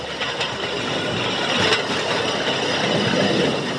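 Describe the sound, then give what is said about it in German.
Rail bike (draisine) wheels clatter steadily along metal tracks as it is ridden at full speed, a continuous rattling rumble with faint squeaks riding over it and no one speaking. “Zeit für ein Foto in voller Fahrt, das geht freihändig. Der Lenker ist ja fixiert. Die Richtung gibt das Gleis vor.”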